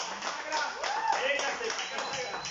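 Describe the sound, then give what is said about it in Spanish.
An audience applauds, a steady, dense wash of many hands clapping that holds for the whole stretch, with a few voices calling out faintly beneath it. “un aplauso por favor para”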